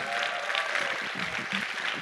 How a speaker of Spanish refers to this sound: Entonces, si tú sirves en parking, gracias, vamos a darles un aplauso a los que sirven en parking,